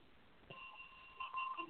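A bell rings with a steady, sustained tone that starts about half a second in and holds to the end, growing slightly louder near the close. No one speaks.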